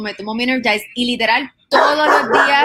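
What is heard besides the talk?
dog barking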